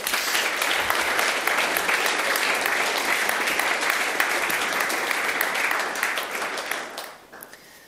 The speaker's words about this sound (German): Merci vielmals. Ich gebe euch Applaus.